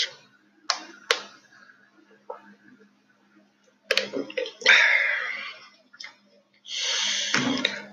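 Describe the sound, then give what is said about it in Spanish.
Someone drinks water: a few sharp clicks and taps, a brief gurgling sip, then a longer splashy pour or slurp near the end, with a faint low hum underneath. “déjame tomarle el agua.”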